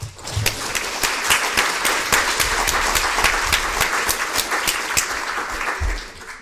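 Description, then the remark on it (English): Sustained applause from an audience welcoming a speaker to the stage, many hands clapping in a dense, steady wash at a fairly loud level that holds for several seconds before tapering off at the end. “Thank Give you. her a big applause.”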